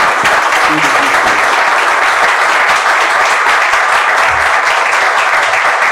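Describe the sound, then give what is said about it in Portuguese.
Sustained audience applause fills the whole stretch, a dense, loud wash of many hands clapping at an even level with no pauses, with faint crowd murmur underneath. “Bom, então não, é vamos, uma grande salva de palmas para essa mandora.”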